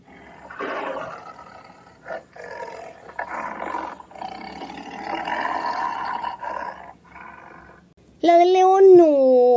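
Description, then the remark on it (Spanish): A lion's roar bursts in loud for the last second or so, a single sustained, wavering growl that follows several seconds of people talking. “Había una vez un león hambriento que no paraba un momento.”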